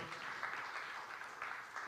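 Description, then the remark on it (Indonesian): Steady audience applause, a dense wash of many hands clapping at an even level for the full two seconds, with no voices standing out above it, given again to thank a brother for serving in ministry with his team. “Boleh kita beri tepuk tangan sekali lagi for our”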